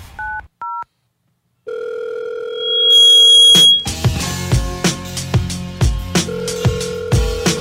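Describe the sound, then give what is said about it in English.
A telephone call goes unanswered: two quick electronic beeps, then a steady, unbroken tone on the line for about two seconds, cut off as a loud beat-driven music track kicks in. “The connect gotta pick up the phone.”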